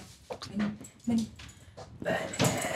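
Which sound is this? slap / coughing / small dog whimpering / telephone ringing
small dog whimpering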